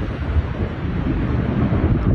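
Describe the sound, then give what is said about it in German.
A violent tornado tearing the roof off a residential house in the French Jura near the Swiss border roars in a continuous, heavy rumble, buffeting and blustering throughout with no clear breaks or distinct crashes. “Da hört man, wie ein Tornado gerade das Dach von einem Wohnhaus weglupft.”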